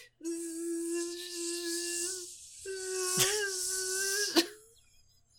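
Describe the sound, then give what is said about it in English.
Imitated fly buzzing, mimicking the sound of the cables that carry the character Dordoni left and right across the screen: a steady, nasal, slightly wavering drone in two long stretches separated by a brief pause, moderately loud over a faint airy hiss, with a couple of sharp clicks. “and then Dordoni shows up and he's being carried by like cables hooked to the ceiling, but they sound like buzzing flies.”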